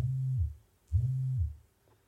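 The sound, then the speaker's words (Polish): Two low, steady buzzing pulses of about half a second each, separated by a short pause, from a smart band's strong vibration motor humming against a surface. Fairly quiet, with no talking. “A, to czy włączysz wibrację, czy będzie słychać w mikrofonie?”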